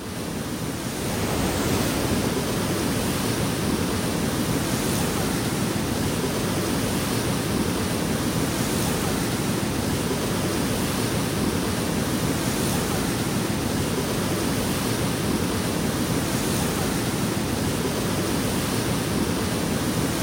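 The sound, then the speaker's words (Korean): Steady, loud rushing of fast-flowing water near Half Dome, with snow still unmelted above, like a snowmelt stream or waterfall, a dense continuous roar filling the whole recording with no pauses and no voices. “그러니까 와, 이 물소리. 물멍이 한번 빠져볼까요?”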